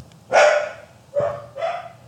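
A dog barks three times in quick succession, a loud sharp first bark followed by two slightly softer ones, with no talking over them.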